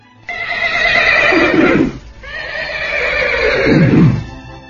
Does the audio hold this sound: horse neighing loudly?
yes